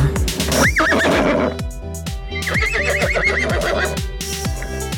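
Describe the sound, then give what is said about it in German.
A horse of the horse-drawn tram (Pferdebahn) on Spiekeroog whinnies twice with a rising, wavering neigh, while hooves clip-clop in a steady, regular rhythm throughout. Both sounds are clear, with no talking. “Herzlich willkommen zu Langsamfahrt Extra und heute geht es um die Pferdebahn auf Spiekeroog.”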